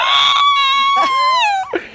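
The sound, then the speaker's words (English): A loud, high-pitched excited scream, one long sustained wail that breaks briefly and bends downward near the end, likely a voice imitating a thrilled shriek of someone screaming "awesome" in a movie theater during Kramer versus Kramer. “I start screaming awesome. around the movie theater.”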